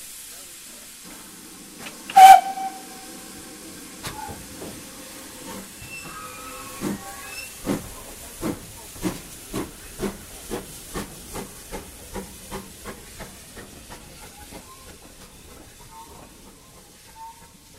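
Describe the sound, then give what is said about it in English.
A steam locomotive hisses steadily throughout while stopped at Parkend station, the end of the line, where it is to be uncoupled, run round the train and take on water. A sharp whistle blast sounds early on, then a series of evenly spaced steam chuffs rises and fades over the steady background hiss. “The locomotive has to be uncoupled and run round to the other end of the train.”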